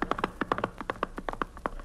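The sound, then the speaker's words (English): Horse hooves clip-clopping in a steady, quick rhythm, with about a dozen sharp, hollow knocks and no voices over them, as a group of riders set off on horseback down the road toward the Landis Cabaret. “okay, come on, let's get on our horses.”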